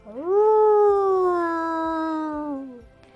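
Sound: wolf howling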